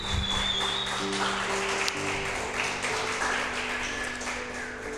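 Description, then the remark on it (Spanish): An audience breaks into steady applause for the Lord, a dense wash of many hands clapping that holds loud and unbroken for the whole stretch, with sustained low musical tones humming underneath. “¿Qué tal si le da un aplauso al Señor?”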